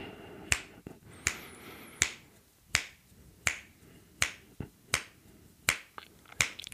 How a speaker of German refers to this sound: Sind sie alle bei dir? Und wenn sie dich dann alle angucken, derweil schnippst du vor dich hin